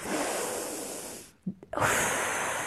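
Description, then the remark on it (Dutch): A long, deep inhale rushes in, breaks off in a brief catch, then gives way to a strong, forceful exhale, all breath with no talking. “Maar in ieder geval dat je echt heel diep in gaat ademen. En heel krachtig uitademen.”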